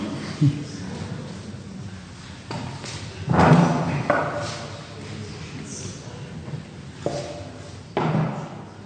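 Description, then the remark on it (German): A few dull thumps and knocks, with a louder scrape-and-bump near the middle, like a chair being shifted across the floor as someone looks for a chair; no one speaks. “Ähm, ja, ich suche gerade mal einen Stuhl.”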